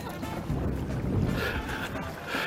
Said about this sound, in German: Links wieder, sonst rauben wir das Boot hier. Vielleicht sollten wir auch etwas mehr synchron paddeln. Etwas nach rechts.